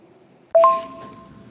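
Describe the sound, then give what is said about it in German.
Glasses clink together in a toast, a quick double touch followed by a clear, bright ring that fades slowly over a second against a quiet background with no talking. “ich möchte mein Glas erheben und dir zuprosten.”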